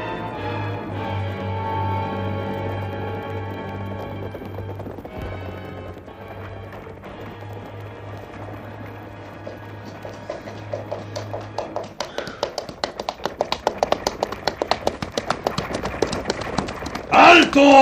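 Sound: horses galloping hooves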